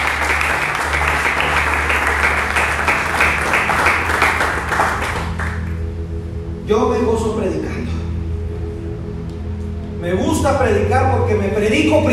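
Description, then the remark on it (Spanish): A church audience applauds loudly to God during a morning service in a dense, steady wash of clapping for about five seconds, which then fades out as a man begins speaking over a low hum. “Y pueden aplaudirme fuerte a nuestro Dios.”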